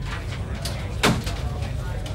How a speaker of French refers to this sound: Allô Allô, je ne vous entends pas je ne vous entends pas, alors je m'excuse si vous ne m'entendez, mais moi je vais raccrocher, que Dieu me pardonne.